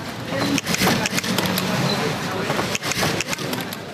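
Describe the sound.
Dense, continuous mechanical rattling of many sewing machines running at once, filling a busy textile factory floor where clothing is sewn, with faint voices murmuring in the background.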